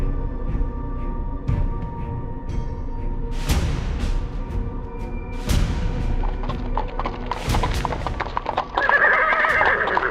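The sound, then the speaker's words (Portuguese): Several cavalry horses neighing loudly over a dense, continuous clatter of hooves in the streets, with sharp whinnies rising at intervals amid a busy, crowded, desperate commotion; no one speaks. “Eles escutam sons de cavalaria, desespero pelas ruas.”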